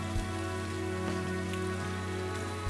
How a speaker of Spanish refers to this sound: La lluvia sigue siendo inclemente mientras se van acercando a Innsbruck.